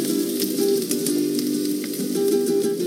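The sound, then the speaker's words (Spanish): Garlic cloves and onion pieces sizzle steadily in hot oil on a stove, a continuous crackling hiss dotted with small pops, with no one talking. “En aceite caliente empezamos a freír los dientes de ajo.”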